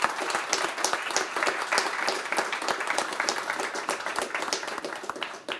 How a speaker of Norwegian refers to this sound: Dere fortjener en applaus.